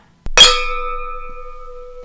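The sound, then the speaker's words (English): Glasses clink together in a bright toast, one quick double tap followed by a clear ringing tone that hangs and slowly fades for nearly two seconds. “Cheers to that.”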